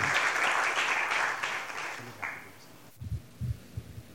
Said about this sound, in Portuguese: e pedir a vocês uma salva de palmas